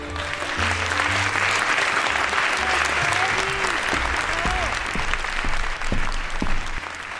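Sustained applause from a large audience fills a theater as a storyteller performer is welcomed to the stage, steady and loud throughout, with faint murmurs and low tones from the stage beneath the clapping.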